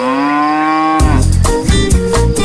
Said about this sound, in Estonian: aga need lehmad siin annavad juustu.